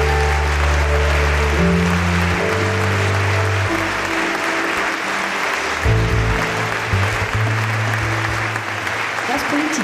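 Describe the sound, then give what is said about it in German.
Loud, continuous applause from an audience at a live festival event in Berlin, a dense steady patter of clapping lasting the whole stretch, with low tonal bass notes sliding underneath, like music playing along with it. “Applaus”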